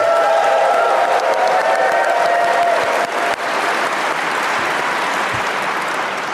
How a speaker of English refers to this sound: We should stress we're coming to you live from SHUX, the Shut Up and Sit Down convention in Vancouver, with a fabulous audience. Give yourselves a round of applause, everybody.